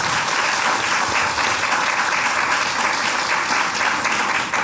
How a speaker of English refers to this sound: Give yourselves a big round of applause.